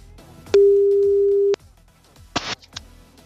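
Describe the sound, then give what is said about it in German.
A single steady ringback tone from the second outgoing phone call sounds for about a second, loud and clear, then falls silent. A short rustling burst and a click follow, like the line being picked up. “Nummer zwei, Call geht raus.”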